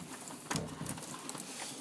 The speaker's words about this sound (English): And it's a rainy Saturday morning.